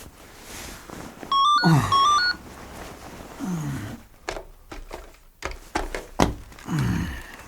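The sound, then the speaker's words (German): A shrill electronic telephone ring sounds briefly at night, after eleven o'clock, followed by soft clunks and rustling as the receiver is picked up by someone woken from sleep. “als Justus in der folgenden Nacht durch das Schrillen des Telefons aus seinen Träumen gerissen wurde”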